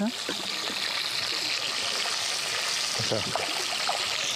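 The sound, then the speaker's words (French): A river rushes steadily, a continuous bright, hissing babble of flowing water, with faint, indistinct voices murmuring now and then underneath. “Si on peut faire un petit carré euh, ensemble euh, de convivialité, on peut en profiter encore de cette rivière aujourd'hui et en espérant jusqu'à très longtemps encore.”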